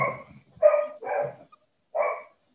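A dog barks three times in quick, uneven succession, then once more after a short pause, fairly loud with no one talking.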